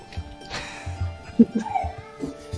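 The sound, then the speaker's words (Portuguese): A few short, irregular barks and yelps from the speaker's own dogs against a low background hum, with no talking over them. “meus cachorros.”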